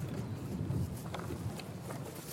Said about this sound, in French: Oh, le vent se lève.